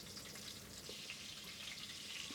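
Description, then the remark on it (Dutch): Steady, crackling sizzle of meatballs frying in a pan as they are turned over, a continuous hiss with small pops throughout, fairly quiet, with no one talking. “Nu gaan we de ballen, die gaan we even weer omdraaien.”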